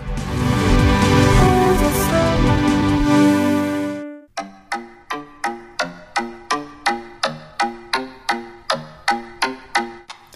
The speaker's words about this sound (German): mit ihrem Post-Punk New Wave Arena tauglichen Rock hören wir einfach genau hier rein.